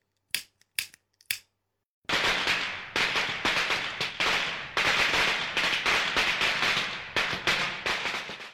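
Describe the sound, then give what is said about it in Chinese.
Firecrackers, lit with a lighter, go off: three sharp separate pops, a short pause, then a loud string of rapid, dense crackling bangs that keeps going without a break to the end. “哎，此刻呢，应该有鞭炮声的。”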